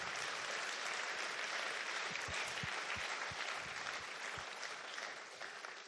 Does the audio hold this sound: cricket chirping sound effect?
no